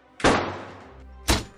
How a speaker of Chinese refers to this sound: 对一个巨大的摔门的声响，然后他们两个人就赶紧回头问其他人说：“你们有没有听到？”